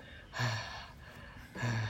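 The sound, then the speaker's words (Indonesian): Someone imitates breathless gasping, two sharp, loud, breathy pulls of air about a second apart, like panting after running. “Nih lo harus kayak mengengahkan gitu loh kayak”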